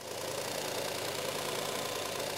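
A knife is sharpened on a motorized grinder, giving a steady, loud, hissing whir with a gritty rasp that holds evenly for the whole stretch, with no voices.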